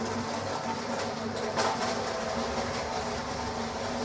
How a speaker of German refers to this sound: Jetzt muss ich mal den Hubwagen nach hinten fahren. Das könnte jetzt ein bisschen lauter werden. Denn ich muss noch eine Palette von draußen reinfahren.